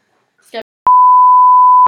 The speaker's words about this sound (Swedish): Annars piper vi det Ja, vi piper.